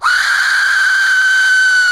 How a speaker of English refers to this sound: Here's this. This has been deemed the most terrifying sound in the world. This is called an Aztec death whistle.